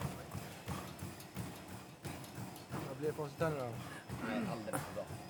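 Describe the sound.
Quick, steady footfalls pound a treadmill belt in a fast running rhythm, while a person's voice talks over the thudding steps partway through.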